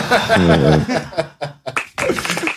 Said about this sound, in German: Der, der Nachwuchs ist am Start. Ja, ich, ja, ein Applaus für den Nachwuchs hier.